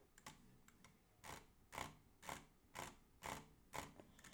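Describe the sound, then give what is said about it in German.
Rapid mouse clicking from drag clicking, a finger stroked across the side of the mouse, comes in a steady series of about seven short, buzzy bursts roughly half a second apart, fairly quiet, with no voices, reaching about 11 to 12 clicks per second. “Und wenn ihr dann äh, hier so rüber streicht, ähm, dann sollte es so einen so einen ganz schnellen Klick-Sound, äh, sollte ich so einen ganz schnellen klick hören.”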